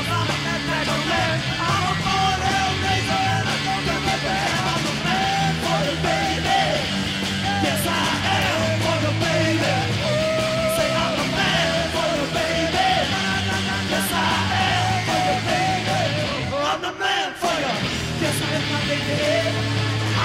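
A loud, dense live rock performance with a raw, yelling lead vocal riding over pounding drums and distorted guitars, the band driving steadily with a brief break near the end.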